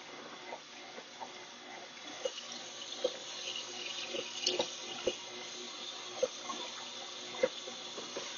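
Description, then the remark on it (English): Dishes being washed in a sink: steady running water from a tap hisses throughout, punctuated by scattered sharp clinks and clatters of plates and utensils, with no voices. “When you start washing dishes and people start to put more dishes in the sink.”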